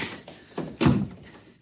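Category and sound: household object, heavy door being closed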